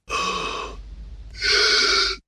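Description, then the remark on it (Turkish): Two deep, audible inhalations, loud, as a person takes as deep a breath as possible and then breathes in again on top of it, each lasting under a second with a brief quieter pause between them. Breathy, airy hiss with no talking. “Alabildiğiniz kadar derin bir nefes alın. Şimdi üzerine tekrar nefes alın ve verin.”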